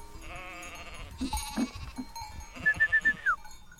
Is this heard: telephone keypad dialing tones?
no